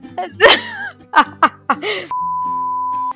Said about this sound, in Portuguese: Amiga, em algum momento apareceu o barulho do WhatsApp aí.